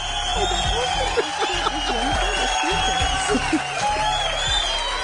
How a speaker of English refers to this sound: All right, I heard the, the crowd cheering.